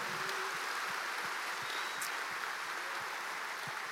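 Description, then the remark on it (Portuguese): An audience breaks into steady applause to praise the Lord for the sermon, a dense wash of many hands clapping at an even level throughout, with no voices rising above it. “Vamos aplaudir ao Senhor por esta palavra?”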